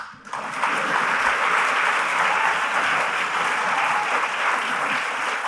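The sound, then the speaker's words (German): A live audience, applauding itself, breaks into loud, sustained applause, a dense steady wash of clapping that starts abruptly and holds at full strength for several seconds without any talking. “Ähm, ja, klatscht mal für euch selber vielleicht.”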